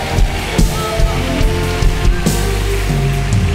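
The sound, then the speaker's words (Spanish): An audience bursts into loud, sustained applause for God, a dense crackling roar of clapping that holds steady for several seconds, with low sustained musical tones playing underneath. “Si lo crees, dale un aplauso fuerte a Dios acá.”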